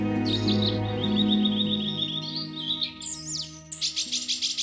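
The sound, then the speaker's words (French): A nightingale sings a bright, rapidly trilling song of quick warbles and sweeping whistles, clear, over a soft sustained musical drone; the phrases grow choppier and more pulsing toward the end. “Le rossignol. Il était revenu consoler le vieil empereur et lui apporter de l'espoir.”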